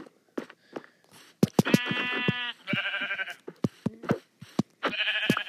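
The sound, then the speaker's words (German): A goat in a video game bleats three times in wavering, nasal cries, interspersed with sharp clicking taps and short thumps, with no talking. “Aber dafür wirst du bezahlen, du Ziege.”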